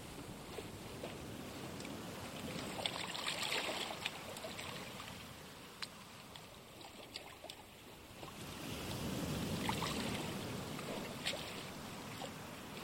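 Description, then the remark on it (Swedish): Gentle sea waves wash in and lap against the shore in two soft swells, with light wind and small splashes between them. No voices, just a steady, calm coastal wash. “Det är bara havet som hörs.”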